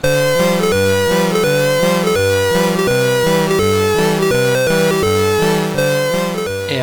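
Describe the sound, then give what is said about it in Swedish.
A short, bright computer game tune plays loud, with buzzy synthesized melody notes over a bouncing, steadily pulsing bass line. It keeps a brisk, regular rhythm throughout, with no voices. “som sagt så fanns det då flera låtar i Comic Bakery-sidan och eh, en liten snutt som låter så här”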